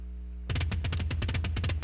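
After a brief low hum, rapid rock drumming bursts in loud: a fast, driving barrage of kick and tom hits rolling in a steady galloping rhythm, with no voices.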